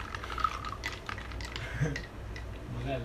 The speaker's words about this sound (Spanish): Sí, le pusiste, agua ah, güey, por eso lo estás meneando, güey.